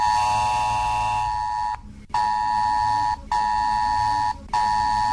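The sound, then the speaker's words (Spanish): A mobile phone alert alarm goes off in a radio newsroom at half past eleven in the morning, blaring a loud, shrill electronic tone in long sustained bursts broken by short silent gaps, repeating steadily with no one talking. “estaba yo tan tranquilo en la redacción de la radio después del programa y de repente sonó esto en mi móvil y, y os lo puedo poner porque lo grabamos en vídeo del susto que nos pegamos.”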